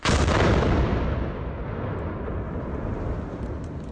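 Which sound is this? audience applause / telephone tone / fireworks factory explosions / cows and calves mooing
fireworks factory explosions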